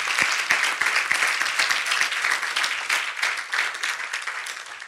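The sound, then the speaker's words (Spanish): A church audience applauding God after saying amen, many hands clapping in a dense, continuous wash of sharp claps that stays loud and even for several seconds, with no talking over it. “Cuando dicen amén, denle ese fuerte aplauso a nuestro Rey.”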